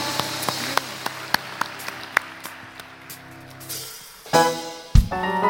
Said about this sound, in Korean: 우리 우리의 친구 되신 주님 앞에 영광과 감사의 박수 함께 올려드리겠습니다.